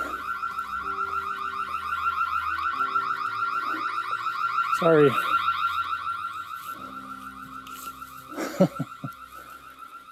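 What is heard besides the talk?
alarm going off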